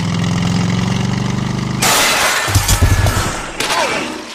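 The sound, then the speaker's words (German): A motorcycle engine revs steadily as the rider sets off, then gives way to a loud, noisy crash as the rider falls, with clattering and shattering impacts that trail off over a couple of seconds. “Die Kraft des Motorrades sollte ausreichen, jedes Seil durchzureißen, das seinen Weg versperrte.”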